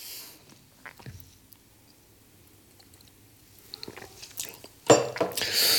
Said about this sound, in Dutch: Even een slokje thee.